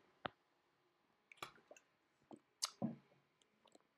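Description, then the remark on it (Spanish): Someone takes a drink of water, with a handful of wet clicks, soft squishy sips and a swallow spread irregularly over a few quiet seconds, with no talking. “Nos me déjame tomar agua porque tanto hablar se reseca la boca.”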